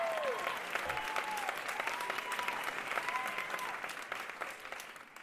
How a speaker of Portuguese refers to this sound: tipo, cara, sério, gente, uma salva de palmas para essa mulher.